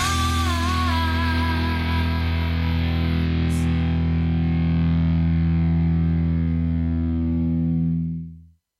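The final bars of a rock song: a loud, heavily distorted chord rings out steadily for several seconds with a shimmering high edge, then stops abruptly. No voices are heard.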